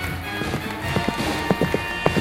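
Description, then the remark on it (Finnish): The hooves of a white circus horse ridden by an equestrienne clip-clop in an uneven, trotting rhythm, several sharp knocks over a steady background hum, with no one talking. “Valkoinen hevonen. Lihakset jännittyneet, kostea karva.”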